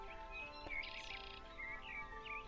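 Outdoor nature ambience in the mountains: birds chirp and tweet in short repeated calls over the soft, steady hiss of a gentle mountain waterfall in the background, with no voices.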